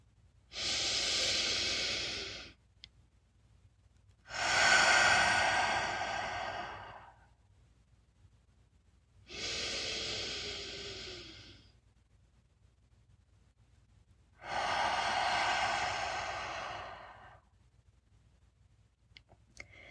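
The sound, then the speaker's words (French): Four slow, deep breaths, in through the nose and out through the mouth, each a long airy whoosh lasting a couple of seconds, separated by quiet pauses. Fairly loud, with no talking. “Prenez quelques respirations profondes par le nez et expirez par la bouche.”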